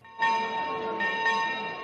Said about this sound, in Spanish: Las campanadas anunciaban el inicio de la misa presidida por el arzobispo de Pamplona y obispo de Tuela, Francisco Pérez.